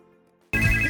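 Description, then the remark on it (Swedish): A phone ringtone, a call from the boss, suddenly bursts in loud after a quiet, faint tonal start, its bright electronic tones sustaining steadily to the end. “Oj, nu ringer chefen här också.”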